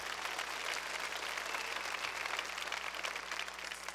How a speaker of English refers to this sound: give her a round of applause just for coming up